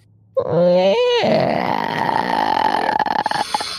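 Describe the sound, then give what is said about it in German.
A voice mimics a creaking door swinging open after its handle is turned: a bending, groaning vocal tone, then a long breathy, scraping hiss that crackles and fades after a few seconds. It is fairly loud. “Einmal Türgeräusch,”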